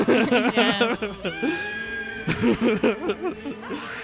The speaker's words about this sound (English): Uh, I never thought I'd end up using the Halloween sting again, but It's now so it's, good. it's I'm just gonna use this every year. It's so stupid.